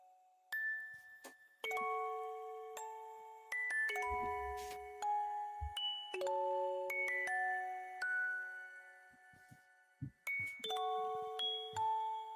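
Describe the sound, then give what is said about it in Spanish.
A gentle melodic tune of bell-like, chiming notes plays steadily and alone, sustained tones stepping through a simple melody at a soft, even volume, with a brief low thump partway through. “Yo te pongo musiquita y cuando quieras cometa.”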